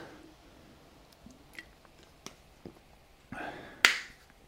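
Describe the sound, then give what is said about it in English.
Someone takes a quick drink from a water bottle during a break after a workout warm-up: a few small clicks and taps, then a brief rush of sloshing and a sharp squeak-like splash near the end, with no talking. “So, have a quick drink. I've got my hopefully quiet water bottle.”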